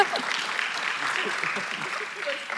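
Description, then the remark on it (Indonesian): A crowd claps steadily for a few seconds for a volunteer who has come forward, a dense, even patter of many hands, with scattered voices calling out underneath. “Everyone clap for him. Coba ah, tepuk tangan buat dia.”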